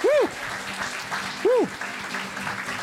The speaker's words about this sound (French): Messieurs, merci, beaucoup. Merci beaucoup. Merci. On peut applaudir bien fort.